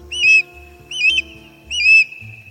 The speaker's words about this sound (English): We've found our fish killer. It was an osprey, a likely suspect. Those birds love boosting fish from lakes and ponds for their dinner.